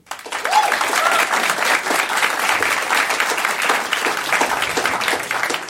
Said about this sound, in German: Euer Applaus für diese Frage.